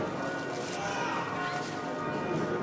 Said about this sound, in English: Actually, the ring bells are similar to Allahu Akbar um, in Al Adhan that it's a reminder that God is greater than anything that you are doing.